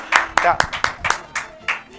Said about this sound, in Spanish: Ay, pues un aplauso, un aplauso.